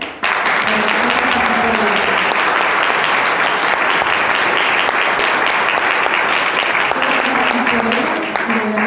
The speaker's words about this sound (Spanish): Así que yo te pido que le des un fuerte aplauso a tu líder auspicia